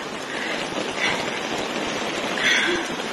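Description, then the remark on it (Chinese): Heavy rain pours in a dense, steady hiss over rushing floodwater on a street in Zhengzhou, where cars are completely submerged, holding one loud, even roar throughout with a couple of brief surges and no voices. “比方说这个视频就可以看到郑州街头的惨状，下雨已经下到汽车都被完全淹没了，就像是遭遇了大洪水一样，令人难以置信。”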